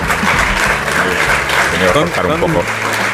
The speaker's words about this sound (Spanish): Son distintas las personas que ahora te aplauden que las que te aplaudieron a las siete y media de la mañana porque ha habido una gran renovación entre el público pues del teatro.